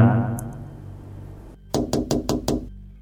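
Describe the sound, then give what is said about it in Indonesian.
Five quick, evenly spaced, sharp knocks on a window, the second round of knocking ten minutes after the first, come after a stretch of low, murky droning that cuts out just before the rapping begins. “akhirnya gue lanjut nonton selang 10 menit dari ketokan pertama ketokan kedua nongol kali ini ada suaranya”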